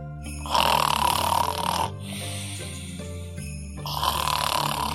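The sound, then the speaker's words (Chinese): Loud, rasping snoring: two long, rough snores with a low rattling rumble, separated by a quieter, breathy inhale. No one speaks. “呼噜呼噜呼噜呼噜，吱吱吱吱吱，吵死了！”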